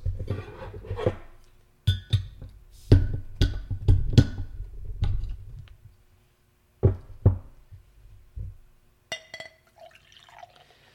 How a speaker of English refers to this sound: I'm pouring this one from a 22 ounce bomber bottle into a Spiegelau barrel aged tulip glass.